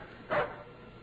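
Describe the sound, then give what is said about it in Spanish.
A dog at the closed door of a neighbour's house gives one short whimpering yelp, a brief muffled cry over a low steady background hiss, with nothing else following. “el perro de aquella casa de Herminia Hernández. que Chimiriqueaba junto a la puerta cerrada”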